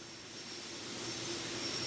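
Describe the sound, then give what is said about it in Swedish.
A steady, droning aircraft engine from the PC game Flight Simulator 2004, running on a computer, hums continuously with a broad hiss and a faint high whine, heard at an even, moderate level with no talking. “sitter framför sin dator och han har igång PC-spelet Flight Simulator 2004.”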